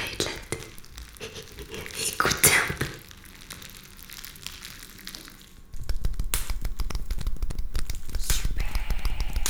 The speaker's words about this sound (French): Aujourd'hui, je vous ai apporté de tout nouveaux triggers. Regardez. Du papier bulle.